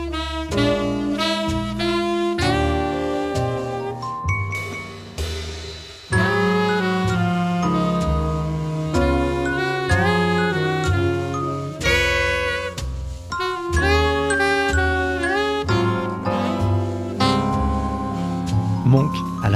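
A jazz recording with chiming, bell-like celesta notes over piano chords and a walking low accompaniment, playing continuously at a steady moderate volume with a brief pause near the middle.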